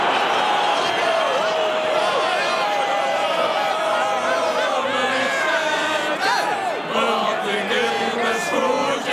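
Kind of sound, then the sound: crowd, stadium crowd cheering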